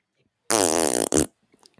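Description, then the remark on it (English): A single loud, buzzy fart noise made with the mouth, a wet raspberry lasting under a second with a brief sputter at the end, alone, with no speech. “He doesn't actually do the fart noise.”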